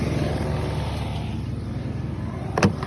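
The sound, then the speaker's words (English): A mail truck engine idles and rumbles steadily as the truck parks in a very tight fit inside a small garage, a low droning hum throughout, with a brief sharp clunk near the end. “They really parked that Big Mac truck right in this little garage.”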